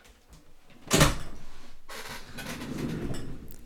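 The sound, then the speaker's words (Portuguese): A door is opened to let in a cat: a sharp clunk of the latch, then a sustained swishing, rustling noise as it swings. No one speaks. “Wait, vou abrir a porta.”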